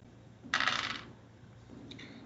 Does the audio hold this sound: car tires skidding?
no